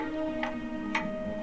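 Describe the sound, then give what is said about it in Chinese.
A clock ticks steadily, with three crisp, evenly spaced ticks about half a second apart over a soft, constant hum. No one speaks. “宝利诺实在太无聊了，他跑去问钟表叔叔。”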